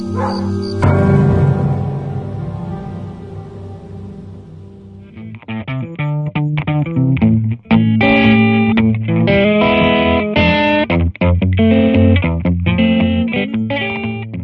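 Loud distorted electric guitar music: a ringing chord sustains and fades, then a punchy, rhythmic riff kicks in with layered effects and no voices.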